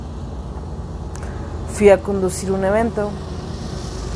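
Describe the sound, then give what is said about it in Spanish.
A train passes by the speaker's house with a steady low rumble and roar that fills the whole recording, while a person speaks briefly over the noise. “Ese es el tren que está pasando por mi casa.”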